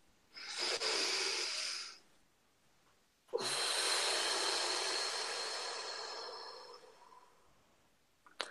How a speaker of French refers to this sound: Une respiration.